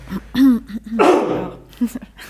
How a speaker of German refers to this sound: In der Zeit räuspere ich mich einmal.